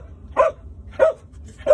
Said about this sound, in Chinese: 你现在看到的这段画面，是我在一片废墟下拿着手机拍到的我自己被搜救犬找到的画面。